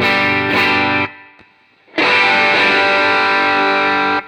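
Electric guitar through an overdrive pedal set with volume at 12 o'clock, drive at 9 o'clock and low and high tone at 12 o'clock, playing two loud, sustained distorted chords separated by a brief near-silent gap, with the second chord ringing out longer.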